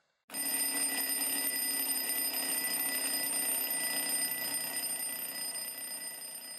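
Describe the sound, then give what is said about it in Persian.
An old-fashioned alarm clock rings loudly and continuously, a harsh metallic bell clatter that starts abruptly after a brief silence and carries on for several seconds with no voices. “یادتونه ساعتهای قدیمی معمولا چه صدایی برای بیدار کردن داشتن”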